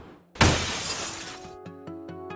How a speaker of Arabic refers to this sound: فجأة سمعنا صوت تكسير في الشاليه